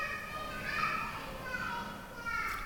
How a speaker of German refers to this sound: Wir haben viele Kinder im Haus und gerade auch viele Kleinkinder, die auch mit dem Roller da unten fahren oder auch rufen. Das gehört auch dazu.